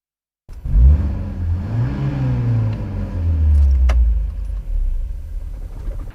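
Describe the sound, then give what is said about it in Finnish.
A 1967 Volvo 144 engine cranks and catches, then revs up with rising and falling pitch as the car pulls away into traffic on a test drive, a loud, steady mechanical rumble throughout with a brief rattle near the middle. “Ja tässä perhe on vuodelta 1967 saanut tämä tehtäväkseen, että tässä on testissä Volvo 144, tai sanotaanko se 144, niin, niin tämmöistä. Ja nyt vaan sitten lähdetään liikenteeseen.”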